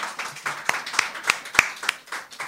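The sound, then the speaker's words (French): A radio show audience applauds after a mock mathematical proof that God is infinite, a dense patter of mixed claps, a few sharper, louder claps standing out at irregular moments over the steady rustle of hands. “Bon, ben on peut applaudir un hein.”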